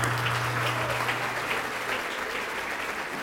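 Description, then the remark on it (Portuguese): An audience applauds in the name of Jesus, a dense wash of many hands clapping that holds at an even, moderately loud level throughout, with a low hum underneath early on. “Tá vindo mais, vamos aplaudir mais.”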